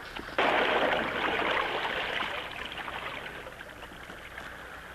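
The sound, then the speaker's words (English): A sudden splash as a broken sword is thrown into fast-moving river water, followed by a steady rush of flowing water that gradually fades. No voices are heard. “Now fighting sword vanish forever in swift water.”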